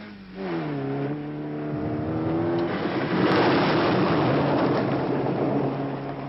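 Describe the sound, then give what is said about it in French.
A Fiat 131 car engine driving fast on an African road, its pitch climbing steadily as it accelerates, then settling into a loud, sustained roar with broad road noise. No one speaks. “Bob avance à vitesse soutenue. Peut-être un peu trop soutenue.”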